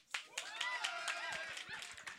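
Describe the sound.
A crowd at a bingo night bursts into a short round of clapping, steady and dense, with voices cheering and calling out over the applause throughout, in answer to a question about who is at their first bingo.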